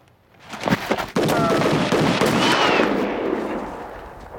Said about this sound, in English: So then the guys find the gold, but then gunshots ring out, and the bad guys get the drop on them, and this is our final clip.